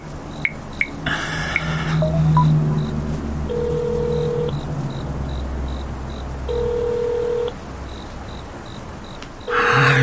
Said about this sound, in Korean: 도대체 뭐 한다고 전화를 안 받는 거야?